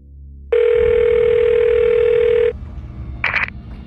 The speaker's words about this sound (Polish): Wybrał numer i czekał na połączenie.